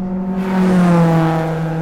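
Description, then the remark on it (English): Engines of three cars racing across the California desert roar loudly and steadily at speed, the motor pitch rising and dipping slightly as the vehicles race along, with no voices. “They're racing in cars across the California desert.”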